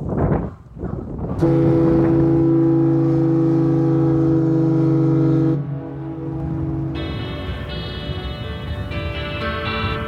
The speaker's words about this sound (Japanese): さあ、今はお昼の12時3分前になりました。ここから12時ちょうどに八幡坂に向かって鳴らされるマシューマルの汽笛を聞いて、この函館を旅立ちたいと思います。